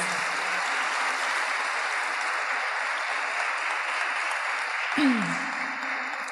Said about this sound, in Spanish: Dale un aplauso al Rey de Reyes, al Señor de Señores.